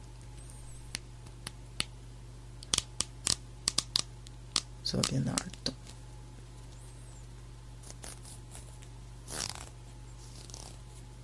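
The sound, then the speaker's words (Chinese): The teeth of a comb, picked up from a table, being plucked, giving a string of sharp, dry ticks at irregular intervals, some clustered into quick rattling bursts, over a low steady hum, with a person speaking briefly. “这个是拨梳子的声音，”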